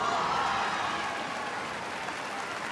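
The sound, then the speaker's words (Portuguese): A large audience applauds and whistles steadily at an Apple product launch event as Apple CEO Tim Cook walks onto the stage, a dense wash of clapping that holds at an even, fairly loud level throughout, with no one speaking over it. “Ele sorri em meio a aplausos e assobios.”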